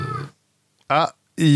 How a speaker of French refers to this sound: c'est pas le Minotaur qu'on entendait, c'est juste le chat.